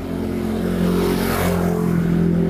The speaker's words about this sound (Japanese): こんな感じでね、散歩してるとちょっとバイク通りますよ。